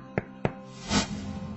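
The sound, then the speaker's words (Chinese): Two sharp, separate knocks on a door, about a quarter-second apart, followed by a duller, longer thud or rustle. No voices, fairly quiet overall. “冷不防的一阵敲门声传来，也让两人惊疑对望。”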